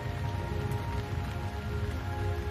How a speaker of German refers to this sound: Merke, wie die Klänge des Regens und die Landschaft um dich herum langsam verschwindet.